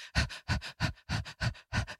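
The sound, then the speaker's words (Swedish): A person imitates the heavy panting of a female dog in her whelping box: six quick, breathy huffs in a steady rhythm, fairly loud, with no talking. “Och slumrar till lite i 30 sekunder, för sen står det någon och flämtar mig i ansiktet.”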